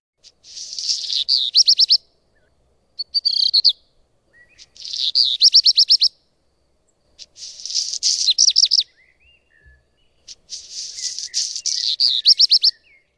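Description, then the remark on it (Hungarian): A black redstart sings four short phrases with gaps between, each opening in a scratchy, crackling rattle that turns into a quick run of bright twittering notes, clear with no talking. “a énekét hallhatjuk meg, ami eléggé jellegzetes, egy ilyen fura, recsegős hangokkal indító, azt rövid csivitelésé alakul át, tehát ha egyszer az ember megérzi, hogy ez a házirosra farkó, akkor mindenhol hallani fogja, tényleg a belvárosban is.”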